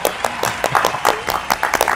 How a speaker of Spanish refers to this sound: no hemos tenido tantos aplausos.